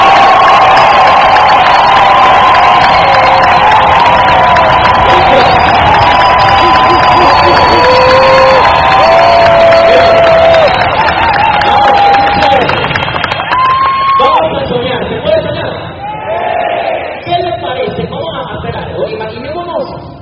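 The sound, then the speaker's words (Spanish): A large audience, asked to applaud the library, breaks into loud, sustained applause with cheering and shouting voices, including some whistles, for about twenty seconds before thinning out and fading toward the end. “A ver, yo si yo le digo, déme un aplauso a la biblioteca.”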